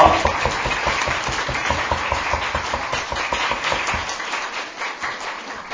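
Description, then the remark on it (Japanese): A church audience applauding together at a service to welcome first-time visitors, a steady dense patter of many hands clapping that holds for several seconds before thinning slightly at the end. “じゃあちょっと立ってもらっていいですか拍手で大歓迎しましょ”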